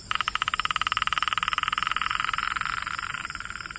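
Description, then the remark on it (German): A frog on Madagascar calls with a rapid, steady train of sharp clicks, like a typewriter rattling away, loud, running for a few seconds before the pulses blur slightly toward the end. “Und das ist keine Schreibmaschine. Klingt ist, aber so. Ja, es ist ein Frosch.”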